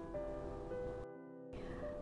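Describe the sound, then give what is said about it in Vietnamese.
Ocean waves wash steadily onto the beach at Mui Ne, Phan Thiet, in a continuous rushing roar that briefly turns muffled midway before returning, with a faint steady tonal hum beneath. “hiện tại thì nhà an đang ở bãi biển mũi né phan thiết”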